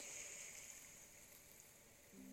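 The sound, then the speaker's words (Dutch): Soft, steady wash of sea waves, quiet, with faint sustained ringing tones of gongs above it and a low hum entering near the end. “De klanken van de zee, de golven.”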